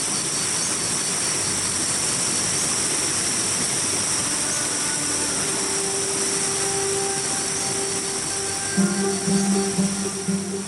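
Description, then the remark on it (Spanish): The massive Iguazú Falls in Iguazú National Park roar in a dense, unbroken wash of white noise, loud and steady throughout, with a faint low hum and some throbbing near the end and no voices. “da el río un salto por unas peñas abajo muy altas y da el agua en lo bajo de la tierra, tan grande golpe que de muy lejos se oye, y la espuma del agua como cae con tanta fuerza, suben alto dos lanzas y más.”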